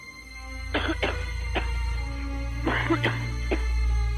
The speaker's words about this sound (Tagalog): Kinilabutan ako nang marinig ko ang ubo ng payat na babae.